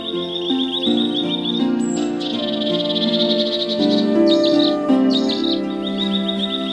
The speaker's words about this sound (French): Et le rossignol chanta.